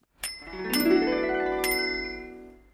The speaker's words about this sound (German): Es war blau und hatte eine kleine Klingel, die in den Ohren des kleinen Ludwig wie Engelsglöckchen klang